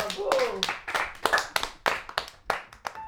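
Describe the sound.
A short burst of applause from a small group for a singer about to perform live on the show Au sommaire ce soir, with sharp, uneven claps landing about three times a second for a few seconds, moderately loud, and a faint voice briefly underneath at the start.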